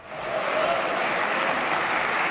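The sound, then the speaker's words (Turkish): Sustained standing applause from the CHP parliamentary group in the Turkish parliament for their leader Kılıçdaroğlu, a dense, steady wash of clapping that swells in over the first half second and holds at a strong, even level with no voices standing out. “CHP grubuysa liderlerini ayakta alkışladı.”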